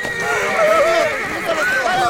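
Horses neighing and whinnying, a continuous stretch of high, wavering cries sliding up and down in pitch, fairly loud and unbroken throughout, with a faint hint of hooves beneath.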